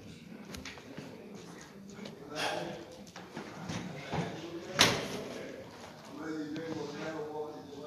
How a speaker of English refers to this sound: somebody close that door for me, please.